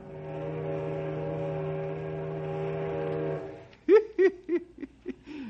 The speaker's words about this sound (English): Our story today concerns the small riverboats that take tourists from Knotty Pine up to Mirror Lake and the King's Islands. Say, I hear the whistle of a riverboat right now.